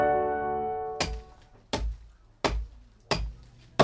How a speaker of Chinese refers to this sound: 嘿咻嘿咻，这是砍树的声音。